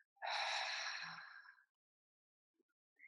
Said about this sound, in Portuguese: Você pode respirar conscientemente. A respiração é muito simples, é só Inspira e solta.